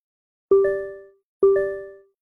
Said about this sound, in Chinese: 沈西扔在床上的手机就接连着收到几条消息。出于对沈西隐私的尊重，叶晨玉一开始并不想理会，但一声又一声的信息提示音让他忍不住好奇的拿起手机。